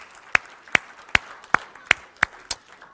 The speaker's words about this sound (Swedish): Ska vi ge barnen en applåd också när de går? Så bra!